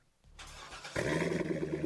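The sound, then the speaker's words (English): A Corvette sports car engine cranks and catches, then roars into a loud, steady rev, with no voices present. “You hear that? That's the sound of America's only sports car. That's right, it's a Corvette.”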